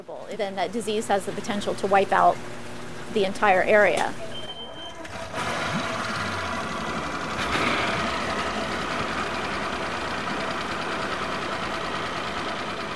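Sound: boat engine running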